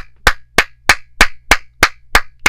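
Eight sharp hand claps in a steady, even rhythm, each crisp and bright, with no voices and only a faint low hum between them.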